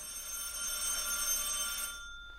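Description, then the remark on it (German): A telephone bell rings unanswered in one continuous burst, a bright, metallic jangle with steady high overtones that lasts about two seconds before cutting off and fading. No one speaks. “Oh Dick, nun nimm schon den Hörer ab.”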